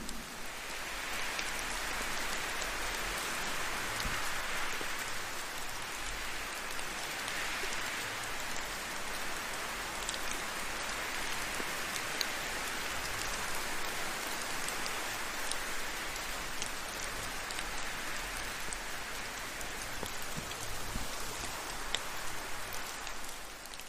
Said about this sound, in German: während du den Tropfen des Regens lauscht.